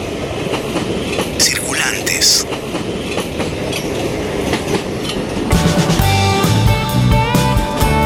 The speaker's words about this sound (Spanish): Hoy mismo mis sobrinas también cuando escuchan que viene el tren es como una sensación así como de expectativa y, de ensueño también, ¿no?